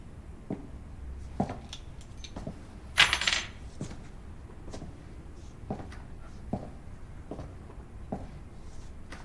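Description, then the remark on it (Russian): A short, bright jingle of keys rings out once as they are handed over to someone, surrounded by soft clicks, taps and handling noises, otherwise quiet with no talking. “Ключи даем. ему.”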